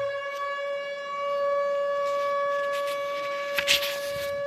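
An air raid siren sounds one steady, unbroken note for the whole stretch, loud and buzzy with rich overtones, with faint background noise and no voices.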